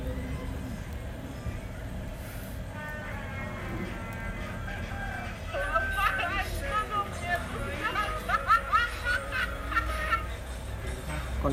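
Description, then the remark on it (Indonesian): Chickens cluck in a busy, repeated stream, growing louder and denser after the first few seconds, over a steady low background rumble and faint murmuring voices. “ini ayam”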